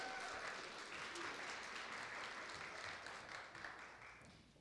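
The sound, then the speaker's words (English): An audience breaks into steady applause for a volunteer who built a tower, a dense wash of many hands clapping at once that holds fairly even and then begins to fade slightly toward the end. “I think he deserves a round of applause for an excellent tower.”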